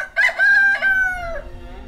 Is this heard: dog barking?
no